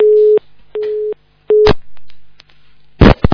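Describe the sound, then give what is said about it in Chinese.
A telephone busy signal: three steady mid-pitched beeps in an even on-off rhythm, followed by clicks and a burst of line noise as a caller's phone line fails during a call-in broadcast. No one speaks. “哎呀，他这个电话线又不行了。”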